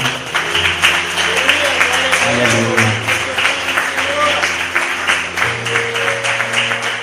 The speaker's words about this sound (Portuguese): Vamos aplaudir em nome do Pai.